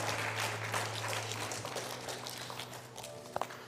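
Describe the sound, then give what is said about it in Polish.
Dense, steady audience applause fills the whole stretch, a broad crackle of many hands clapping at once with no voices on top, fading slightly toward the end. “Brawa, brawa, brawa.”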